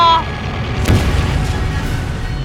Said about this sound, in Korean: 가미카제의 광적인 공격으로 1만 명의 미군과 34척의 함선이 폭발하는데